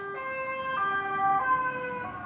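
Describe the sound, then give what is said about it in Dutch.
An ambulance siren wails with steady, sustained two-tone pitches, fairly loud as it passes along a busy road beside a home, over a low rumble of road traffic. “Er komt even een ambulance langs.”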